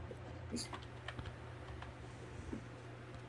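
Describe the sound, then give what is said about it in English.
Computer keyboard typing and mouse-like clicking as someone does graphic design, a run of irregular, fairly quiet taps over a steady low background hum, with no one talking. “If y'all hear a lot of clicking, don't mind me. I'm over here doing the graphic design.”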